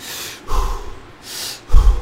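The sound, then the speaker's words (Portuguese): Forceful, rapid hyperventilation breathing demonstrated as an aggressive breath repeated 30 times: sharp hissing inhales alternate with heavier puffing exhales, about two full breath cycles in quick rhythm, with no talking. “Você vai hiperventilar o seu corpo, né? Uhum. então você vai 30 vezes fazer uma respiração agressiva”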